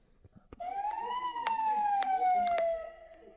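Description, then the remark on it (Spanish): An ambulance siren sounds its search tone, used when the crew reaches an accident location and cannot find the scene: one slow, loud wail that gently rises and then falls over about two seconds, with a few sharp clicks over it. “Sí, eh, ese es de búsqueda.”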